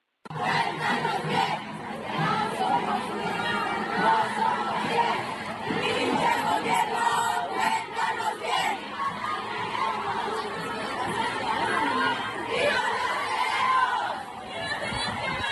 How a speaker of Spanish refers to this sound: vamos a escuchar pues esas consignas que las chicas eh, señalan y gritan al ir avanzando